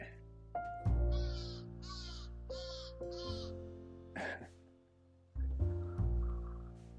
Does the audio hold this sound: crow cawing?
yes